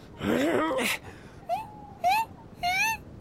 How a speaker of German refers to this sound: Ei der Daus, höre ich eine Maus? Ein leckerer, kleiner, winselnder Braten?